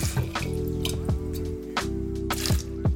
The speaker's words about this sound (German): Meine Geli kümmert sich noch schnell um die dreckigen Gläser.